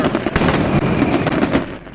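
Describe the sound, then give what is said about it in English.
A fireworks sound effect, played as congratulations to Anna Jay and Jungle Boy, crackles and pops in a dense, continuous barrage, with several sharper bursts standing out over two seconds, loud, with no voices. “Big congratulations. Fireworks to them.”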